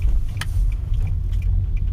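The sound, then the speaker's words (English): A steady low rumble of a car interior while driving, fairly quiet and even, with a few faint light clicks and ticks scattered over the road noise and no one talking. “some of you guys appreciate the quietness of this car compared to my old bone rattler.”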